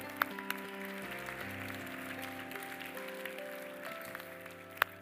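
An audience at Calvary Church claps their hands to Jesus, a dense wash of many hands over sustained keyboard chords, with a few sharper claps standing out in the steady patter.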